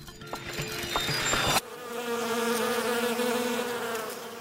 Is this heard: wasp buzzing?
yes